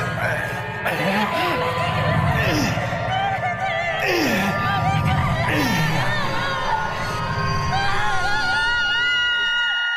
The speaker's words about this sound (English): that scream in my head.